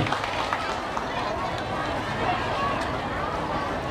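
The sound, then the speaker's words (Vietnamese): A crowd of local government leaders and Buddhist followers applauds steadily for a few seconds to honor a Buddhist nun's great contributions, a dense, continuous crackle of many hands clapping at once with a faint murmur of voices underneath. “chúng tôi kêu gọi tất cả các quý khách là lãnh đạo chính quyền địa phương các quý phật tử cùng với chúng tôi dâng cao tràng vỗ tay thật lớn để ghi nhận công đức to lớn này”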